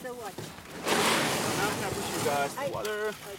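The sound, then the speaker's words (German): A canoe pushes off from the riverbank onto a river, a steady rush of scraping and sloshing water lasting a second or two, with voices heard briefly before and after. “Wir drücken uns vom Ufer ab und schaukeln auf dem Fluss dahin.”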